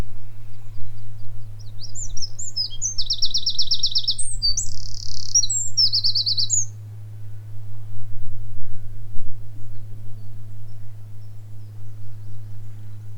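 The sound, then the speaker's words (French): High, rapid bird chirps and calls burst out in a cluster all around for a few seconds, then fade, over a steady low rumble with no voices, on an ordinary morning by the sea at Livrac, with boat noises in the distance and seagulls flying low and quietly. “Quelques bruits de bateaux au loin, des oiseaux tout autour.”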